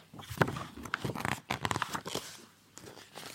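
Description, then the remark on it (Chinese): A pencil scratches across paper in an artist's studio as a quick sketch of the pet Xiaopang is drawn, in a quick series of dry, rasping strokes, rough and papery, pausing briefly before a few softer scrapes at the end. “铅笔滑动，纸上发出沙沙的声音。”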